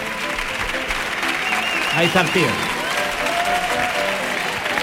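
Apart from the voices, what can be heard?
audience applause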